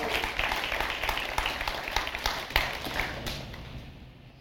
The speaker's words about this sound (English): You can clap for that. Thank you.